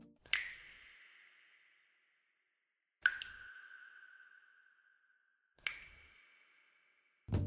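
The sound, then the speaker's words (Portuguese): Three single water drops fall about three seconds apart, each a bright plink followed by a long, ringing echo that fades slowly, like drips in a cave. A fourth drop begins right at the end. “Ou ainda, o som de uma gota d'água reverberando pode ser o suficiente para nos colocar dentro de uma caverna.”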